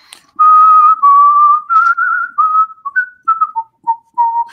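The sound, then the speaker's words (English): A person whistles a Christmas melody, clear and fairly loud, moving through a string of sustained notes and short bouncing phrases with brief breaths between them, no talking. “I'm my, my, mom can't whistle, and she likes to hear me whistle.”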